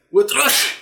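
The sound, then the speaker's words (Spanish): A single loud sneeze: a brief voiced intake swells into a sharp, breathy burst of noise that trails off quickly, with no talking alongside it. “¡Salud!”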